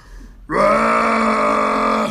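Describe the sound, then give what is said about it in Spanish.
One long, loud burp during a drinking contest, drawn out for nearly two seconds with a steady, droning tone, rising abruptly after a brief quiet moment and holding forceful until it cuts off. “Era puro pinche eructo.”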